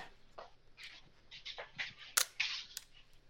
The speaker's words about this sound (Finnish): eli mulla on tässä Moskova viitonen, mutta tämähän on no niin. keskussulien kamera ja tässä on tämmöinen ääni.